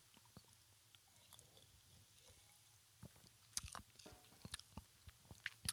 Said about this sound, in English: I just took a sip of seltzer. That might have been the most gross thing that I could have just done, but I, I, am sorry.